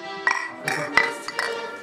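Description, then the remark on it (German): Several glasses clink together in a toast, four or five bright ringing taps in quick succession, over a low background murmur. “Wenn man sich trifft, muss eins dabei sein. Das steht hier. Prost!”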